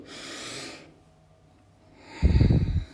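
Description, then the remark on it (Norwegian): A slow, airy breath drawn in through the nose during a guided breathing meditation, followed after a short pause by a louder, rougher nasal rush of air. No one speaks. “Så puste inn.”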